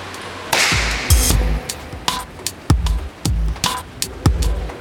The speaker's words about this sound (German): Jetzt klatschen wir mal ganz kurz.